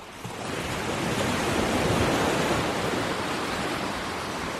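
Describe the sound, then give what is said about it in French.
Ocean surf rushes in a steady, loud roar, swelling after a brief quiet start and holding as a broad hiss of breaking water with no voices. “Ceci m'amène naturellement à la seconde définition de ce mot et à sa connotation maritime de masse d'eau qui se soulève et s'abaisse pour le plus grand plaisir des surfeurs.”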